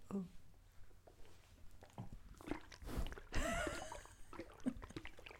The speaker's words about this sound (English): I could like pour and make a sloshing sound.